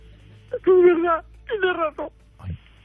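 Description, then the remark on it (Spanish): A woman sobs in shaky, drawn-out wails, two longer cries followed by short catching breaths and a brief whimper, with quiet pauses between. “Pero no llores”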